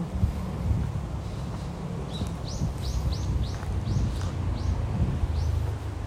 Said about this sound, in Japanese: 聞こえる鳥の声